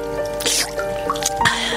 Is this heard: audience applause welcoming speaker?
no